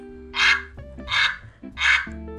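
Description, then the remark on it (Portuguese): A duck quacks three times in a steady rhythm, each call a loud, harsh, raspy burst, with a faint steady tonal hum continuing underneath. “e até o pato entrou na brincadeira.”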